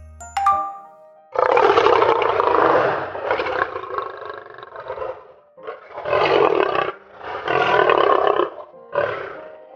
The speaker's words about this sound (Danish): vi fik en af løverne i zoologisk have til at brøle helt vildt højt, og så optog Freja lyden på min mobil